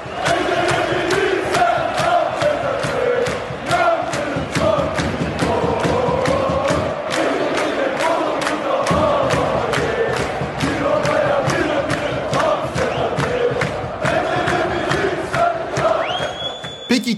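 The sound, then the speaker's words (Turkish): A football stadium crowd chants loudly and continuously for Ali İsmail, voices massed in a rhythmic, swelling roar punctuated by regular thumping beats, with a brief lull midway before the chant surges back. “Maçlarda bağırılıp duruyor Ali İsmail için.”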